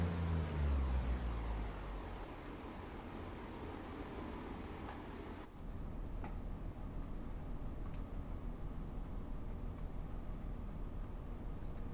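A video game train with weak brakes rumbles heavily as it slows, its deep roar fading over the first seconds into a steady mechanical hum with faint clicks and ticks, no voices.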